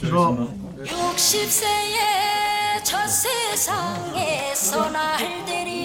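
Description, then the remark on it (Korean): A mobile phone ringtone plays a song: a loud, continuous melody with a wavering singing voice and bright accompaniment running for several seconds without pause. “누구의 핸드폰 벨소리입니까?”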